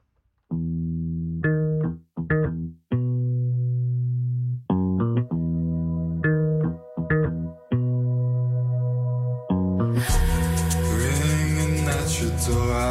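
A remixed pop track plays: bright synth chords stutter in choppy bursts and pauses, then a full, dense beat with crisp highs bursts in near the end, loud.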